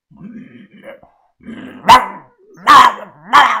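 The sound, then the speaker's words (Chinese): A large dog at a lakeside hotel, after sniffing chocolate thrown to it, gives a low, rumbling growl, then breaks into three loud, deep barks, each a harsh burst spaced under a second apart. “我额头冒着汗大狗靠近巧克力闻了闻。立即抬起头来，对我是呲牙咧嘴，发出了低沉的咆哮啊！”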